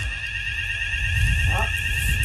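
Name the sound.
fire alarm ringing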